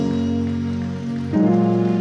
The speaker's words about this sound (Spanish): Dale un fuerte aplauso a Dios hoy. Él es bueno.